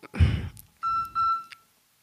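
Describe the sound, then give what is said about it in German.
A mobile phone gives a short electronic alert: two clear, evenly spaced beeps, moderately loud, preceded by a dull thump, with no one talking over it. “Das war Lins Handy. Das war mein Handy.”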